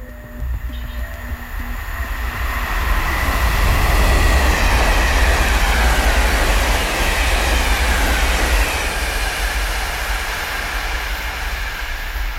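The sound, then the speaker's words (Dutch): A train carriage on a ride back to Antwerp rumbles steadily along the rails, a loud, continuous rattle and low roar with a faint metallic whine above it and no voices. “Op de treinrit terug naar Antwerpen staren we naar het stapeltje papieren dat Hugo ons heeft meegegeven”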